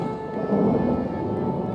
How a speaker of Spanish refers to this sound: Truenos.